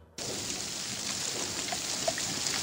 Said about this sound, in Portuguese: Barulho da chuva aí, né? Mudança radical no tempo. Uma frente fria causa chuva em São Paulo e também no Rio de Janeiro.